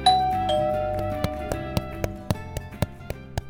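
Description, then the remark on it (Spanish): A doorbell chimes with two bright, ringing notes that slowly fade, followed by a steady run of sharp clicking taps. No voices are heard. “Gera estaba viendo su programa favorito en la televisión cuando el timbre sonó.”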